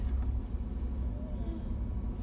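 A steady, low engine rumble fills the space from inside a car, a continuous droning hum with no other distinct sounds over it.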